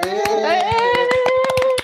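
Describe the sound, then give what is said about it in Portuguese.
Brisk, irregular clapping celebrating a one-year anniversary, a dozen or so sharp claps over about two seconds, accompanied by a sustained, slowly rising vocal tone held throughout. “E aplaude.”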